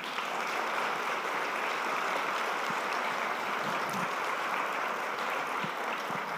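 audience ovation applause

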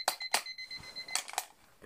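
alarm clock beeping

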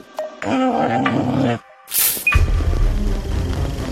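dog growling and whimpering

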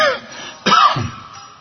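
cough

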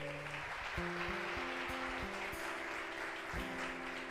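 audience applauding loudly

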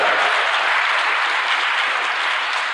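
applause

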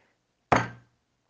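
door slamming shut

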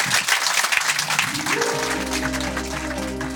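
audience applause

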